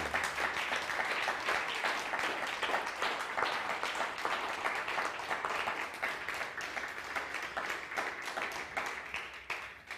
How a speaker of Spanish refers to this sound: Ahora sí, un fuerte aplauso, por favor.